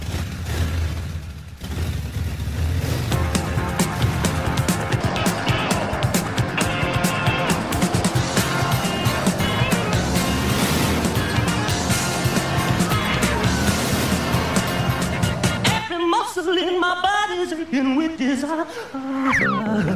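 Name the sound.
car driving off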